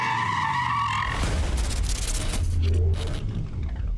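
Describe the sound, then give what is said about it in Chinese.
A sports car's tires screech in a sustained, high-pitched skid while a deep engine rumble roars underneath, the squeal wavering before giving way to a broad, noisy rush as the car brakes hard. “跑车绝对不能及时停下来了。”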